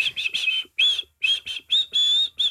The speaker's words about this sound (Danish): Når du fløjter her, ja. Prøv at høre.